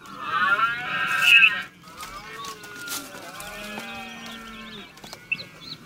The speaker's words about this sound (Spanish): Los machos adultos emiten unos sonidos guturales que son muy característicos, que es a lo que se le llama así a la berrea. Y te traigo una grabación para que lo oiga A ver.